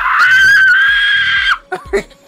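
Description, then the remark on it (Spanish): A voice imitates a piercing whistle-register singing note, holding one loud, shrill, steady pitch for about a second and a half before breaking off into brief speech fragments. “eh, melismático es como una técnica que puede cambiar la altura musical de una sílaba de la letra de una canción mientras está cantando, y por el uso del registro del silbido.”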